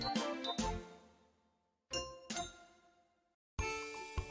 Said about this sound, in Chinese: 下课钟声响起时，大家都吵着不想下课呢。